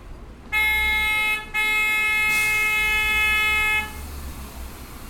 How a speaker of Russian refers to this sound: Так что, ребята, простите, но мы с вами вместе будем слушать э, звуки Иерусалимской улицы. А я, в отличие от вас, буду еще нюхать запах первого иерусалимского дождя.